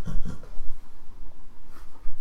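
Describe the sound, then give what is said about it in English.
A dog gives two quick, piggy oink-like snorts close together at its bedtime, followed by a fainter snuffle a moment later, heard without any talking. “doing oinks in the background.”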